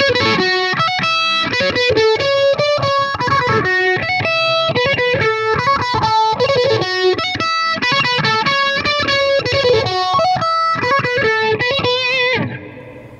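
A distorted electric guitar plays a steady stream of bright, sustained notes through a phaser effect, with a subtle swirling, whooshing modulation on the decaying tones, ending abruptly near the close.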